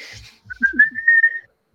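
A person whistles a short, steady tone that rises slightly and holds for about a second, clear, with a soft breathy onset and no talking.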